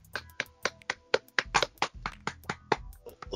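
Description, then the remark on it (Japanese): A few people clap lightly and unevenly, about a dozen soft claps spread over a few seconds with no talking. “なんか、拍手薄いな、まあしょうがないか。”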